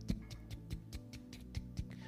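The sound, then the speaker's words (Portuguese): A voice imitates a watch's tick-tock with about ten quick, soft mouth clicks in a steady, even rhythm, fairly quiet, with no talking. “Eu fiquei no silêncio e eu consegui ouvir o quê? O tic-tac do relógio, né?”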